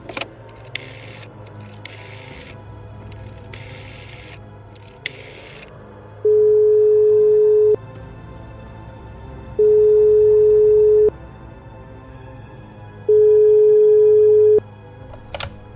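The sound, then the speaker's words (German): Three long, steady telephone ringback tones sound at an even pace, each followed by a pause, after a few bursts of handling noise from lifting the receiver and dialing. A low background hum runs throughout. “Ich gehe jetzt, geh jetzt ans Telefon und rufe äh, Herr Senft an.”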